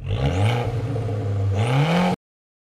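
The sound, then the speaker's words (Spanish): An Abarth sports car, the 180-horsepower version, revs its exhaust hard, the low engine note climbing, dipping, then rising again in two strong pushes before cutting off abruptly. No one speaks. “¿Habéis escuchado cómo suena el escape?”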